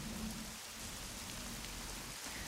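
Steady rain patters on surfaces at a dacha (country house), a dense continuous hiss of drops with a faint low rumble underneath and no voices.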